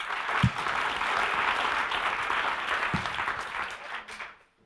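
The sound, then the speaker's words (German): A small burst of audience applause welcoming first-time visitors to the Kille, dense steady clapping from many hands that holds for about four seconds before quickly dying away into silence. “Heute vielleicht gerade äh, einfach mit einem kleinen Applaus.”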